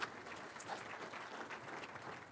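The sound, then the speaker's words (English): An audience claps together for the board of an industry association in a steady, dense wash of applause that carries on evenly for a couple of seconds, fairly soft, with no talking over it. “This and give a round of applause to the board.”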